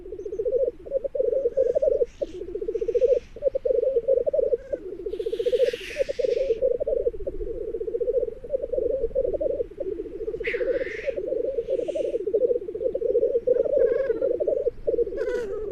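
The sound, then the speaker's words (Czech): Black grouse males bubble in a continuous, rolling, dove-like chorus at a spring lek, broken now and then by loud sneezing hisses. No voices are heard. “Ptal jsem se ho, jaké zvuky tetřívci při toku vydávají a co je na nich zajímavého.”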